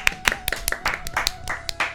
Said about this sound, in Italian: Un applauso. Un applauso ai nostri registi.